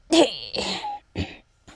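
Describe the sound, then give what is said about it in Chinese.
A voice acts out a big sneeze by a little pig in a children's story, which blows off a plastic tube fixed to its nose: a loud, breathy, strained burst, a drawn-out second push, then two shorter sharp gasps trailing off, with no other talk. “他打了一个大喷嚏，把塑料管喷飞了。”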